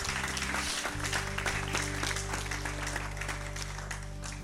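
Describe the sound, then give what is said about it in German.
An audience at a church service applauds steadily for everyone who prayed, the clapping dense and sustained, while a low sustained organ-like tone hums underneath throughout. “Lass uns einen Applaus geben für jeden, der das heute gebetet hat.”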